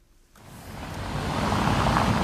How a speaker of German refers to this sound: Helsinki Innenstadt. Straßenbahnen fahren vorbei, ein paar Autos. Schön langsam auf engen und klar abgegrenzten Fahrbahnen. Sehr finnisch, keine Hektik.